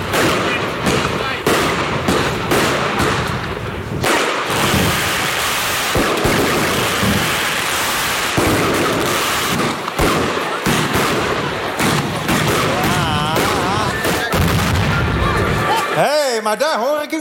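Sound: fireworks and firecrackers exploding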